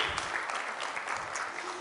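An audience at Church of the Word applauds together to welcome a first-time guest, a steady, dense wash of many hands clapping that holds at an even level throughout, with no voices breaking through.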